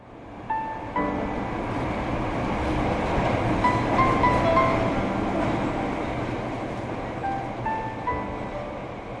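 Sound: train riding on rails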